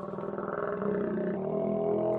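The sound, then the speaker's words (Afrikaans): A hungry stomach of someone who has not yet eaten growls in one long, rumbling gurgle lasting about two seconds, low and fairly loud with a throbbing, bubbling texture, and no one talking over it. “Skus, jammer maat, dis net O, dis net my maag.”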